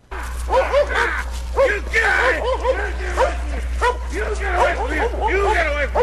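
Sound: dog barking and yipping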